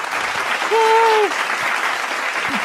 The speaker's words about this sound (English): Round of applause.